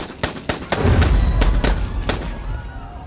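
gunfire

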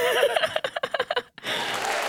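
applause

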